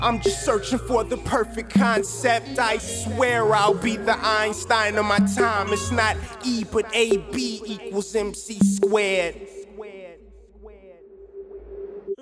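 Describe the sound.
A hip-hop track with a male voice rapping steadily over a low bassline and a sustained synth tone; the vocals drop out near the end, leaving the beat briefly fading.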